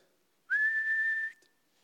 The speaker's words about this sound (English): That was to sit, a long whistle. And the dog would sit.